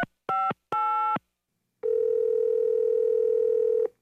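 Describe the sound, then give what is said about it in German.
Two short electronic telephone tones beep in quick succession, followed by a pause and then a steady, continuous dial-style tone held for about two seconds, as a phone call is made to reserve a table for two. No voices are present. “Wir greifen zum Telefon und reservieren einen Tisch für zwei Personen.”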